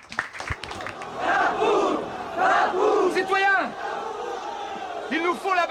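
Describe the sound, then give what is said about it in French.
A large crowd shouts and roars together at the Place de la Bastille on 14 July 1789, a dense wall of overlapping voices with individual yells rising above the din, loud and sustained for several seconds. “une place de la Bastille, Noir de Monde, en ce 14 juillet 1789.”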